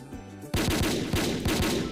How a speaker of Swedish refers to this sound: 5000 pistolskott.